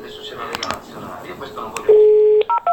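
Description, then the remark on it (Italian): A steady telephone tone sounds for about half a second as a new phone number is called, followed by two short, sharp dial tones in quick succession, heard after a stretch of busy background noise with scattered clicks. “Questo è quanto si ascolta al nuovo numero, in diretta.”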